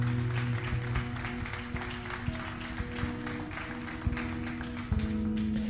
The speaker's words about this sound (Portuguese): Então aplauda o Senhor, querido.